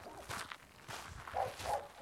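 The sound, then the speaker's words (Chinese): A small dog on a pasture that keeps following the speaker barks in a few sharp, irregular bursts, with short woofs spread across the moment at moderate loudness and no one speaking. “这是小狗一直跟着我哈。别叫了，我们是好人，”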